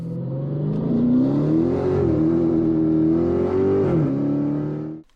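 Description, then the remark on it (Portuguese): A short intro sting built from a car engine revving loudly up and holding a steady roar, with a brief dip near the end before cutting off abruptly. No voices. “Então, se você não quer perder isso tudo, já se liga e fique com a gente que é logo depois da vinheta.”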